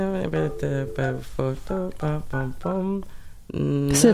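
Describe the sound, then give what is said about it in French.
A phone number being dialed: a quick run of about eight keypad beeps at a steady pace, each at a slightly different pitch, followed by a louder, longer tone. “Après, on va composer le numéro de téléphone.”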